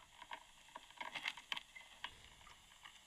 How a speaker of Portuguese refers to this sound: Para começar, está a pôr uma quantidade absurda de shampoo na cabeça do moço.